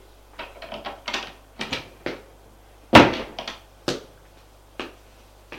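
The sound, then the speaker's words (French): Sharp, crisp knocks on a living room door in the morning, about a dozen in an uneven, scattered rhythm, with one noticeably louder rap midway, with no voices. “Il frappe à la porte du salon.”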